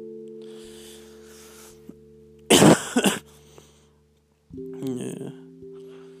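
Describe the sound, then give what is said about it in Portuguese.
Two or three harsh, loud coughs from a person with an inflamed throat who is falling ill, followed by a shorter voiced throat sound, all over a steady low droning hum in the background. “E eu tô com a garganta inflamada, eu acho. Tossindo pra caralho.”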